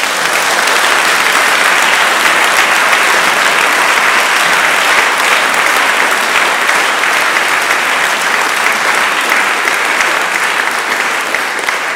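Sustained audience applause, a dense, steady wash of many hands clapping at an even loudness for the whole stretch, with no voices rising above it.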